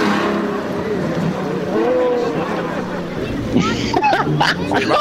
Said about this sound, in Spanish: ¡Ey! ¡Se está robando el carro! ¡Se está llevando el carro! ¡Policía!